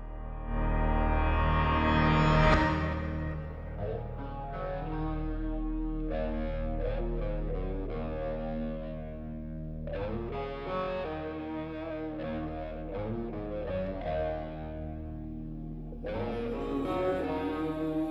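A heavy metal rock song from 1992 with thick, distorted guitar chords played loud and steady, briefly thinning out partway through before the full crunching sound returns, with no talking over it.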